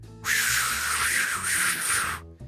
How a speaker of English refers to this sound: Yeah, so this is a normal uh, storm and uh, and stuff like that with the wind blowing. Listen.